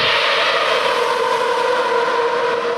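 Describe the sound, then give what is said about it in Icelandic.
Onboard audio of a failing racing car engine: a loud, continuous roaring whine with a steady pitch and no breaks, and no voices. “Já, maður, maður, þegar þú heyrir það á ombordi að vélinn fer, þá fer hún vel.”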